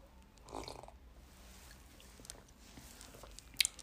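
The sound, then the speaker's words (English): Someone takes a quiet sip of grape juice, with soft wet mouth sounds, a brief slurp, and a small swallow or click near the end. No talking. “But before we start, let me quickly have a sip of my grape juice.”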